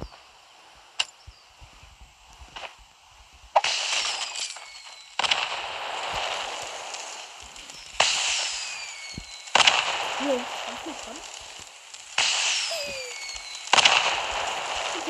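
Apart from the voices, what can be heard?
fireworks exploding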